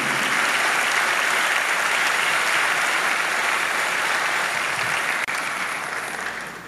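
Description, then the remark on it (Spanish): Sustained crowd applause, a dense, steady wash of many hands clapping at a loud, even level throughout, with no voices standing out. “Dale el aplauso fuerte.”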